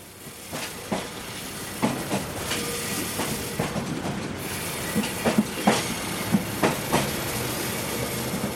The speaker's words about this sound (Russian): 드디어 열차가 출발합니다.